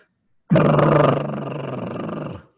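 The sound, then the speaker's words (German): A voice imitates the noise a faulty car heater makes when switched on: a loud, sustained droning rumble, a low growling buzz that starts abruptly, wavers slightly, then eases a little before cutting off after about two seconds. “Und ähm, tatsächlich habe ich jetzt festgestellt, als ich dann in der bitter, in, in, in Dauer, in Permafrost mich zur Arbeit kämpfe mit meinem treuen Auto, dass die Heizung wohl einen kleinen Macken hat. Also wenn ich sie anmache, macht sie.”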